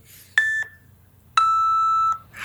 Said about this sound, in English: There will be beeps to tell you that you are out of time and you can't go over